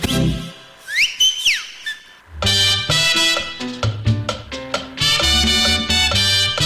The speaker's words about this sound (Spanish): dígame, ¿ha pitado? Pero pitaste, que si pitaste.